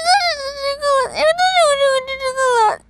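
A young boy wails loudly, a high, strained cry that rises and falls in long sustained sobs with a brief break in the middle, with no talking over it; a boy denied sweets on the Ukrainian reality show Хата на тата.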